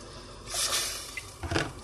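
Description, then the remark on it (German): Nearly one litre of broth, a stock made from pork rib, is poured into a pot in two short, splashy bursts, with a soft gurgling rush of liquid and no one speaking. “Jetzt haben wir knapp einen Liter Brühe.”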